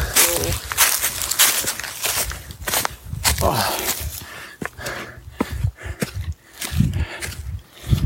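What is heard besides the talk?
heavy panting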